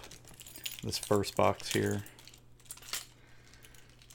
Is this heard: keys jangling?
yes